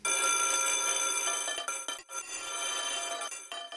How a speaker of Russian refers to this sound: Итак, звонок прозвенел, урок закончился